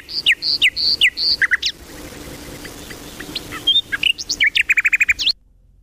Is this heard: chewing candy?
no